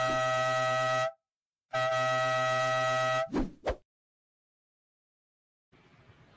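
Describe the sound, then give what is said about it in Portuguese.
Two long, loud air horn blasts with rich harmonic tones, separated by a short gap, followed by two quick rising whoosh-like swoops, then silence and a faint noisy rustle at the end. “eu vou trazer aqui já a nossa, as nossas vinhetas maravilhosas e vamos para onde mais interessa, né? Que é o momento da corneta.”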